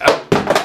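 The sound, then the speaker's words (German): A mobile phone clatters down with two quick, hard knocks, a sharp thunk and then a second bump with a brief rattle, loud against an otherwise quiet background with no talking. “das war ich nicht. Also, das war nur das Handy.”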